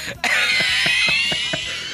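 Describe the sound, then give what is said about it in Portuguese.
A voice imitates an old man's deep, rattling cough: a loud, strained rasp broken by about six rhythmic hacking bursts over two seconds, with no talking. “Primeiro tosse de paeiro que ele dá já foi tudo pro saco.”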